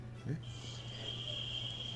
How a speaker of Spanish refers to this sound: amo el sonido de las chicharras. no, es que se, han desatado las chicharras. Lo máximo. Una semana de la Semana Santa. Oigan las chicharras aquí.